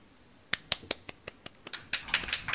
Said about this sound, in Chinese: 朗诵的不好啊。 掌声已经响起了，说明朗诵的很好。